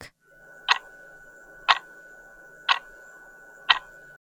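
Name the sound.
clock ticking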